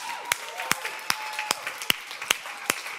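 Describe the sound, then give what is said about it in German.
An audience claps in a steady, even rhythm, about eight sharp, crisp claps in three seconds over a soft background wash, with no voices. The applause at a sermon is for the team and ushers who clear away, stow and set up the chairs. “Bitte Applaus für alle Menschen, die diese Sessel immer räumen und wegstecken und wieder aufmachen.”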